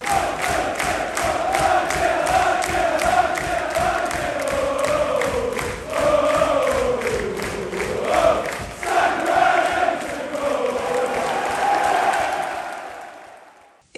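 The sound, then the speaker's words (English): A large Arsenal football crowd sings together in a stadium, a sustained, swelling chant with a wavering melody and rhythmic pulses, loud throughout before fading away at the end. “I noticed the Arsenal crowd were in good voice.”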